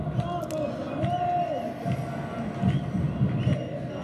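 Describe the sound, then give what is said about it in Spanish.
América football supporters in a large stadium chant "Vamos América" together in a continuous, rhythmic roar, voices blending into a dense wall of sound with occasional louder swells and scattered shouts. “Nos despedimos con el Vamos América que así se escucha en el estadio.”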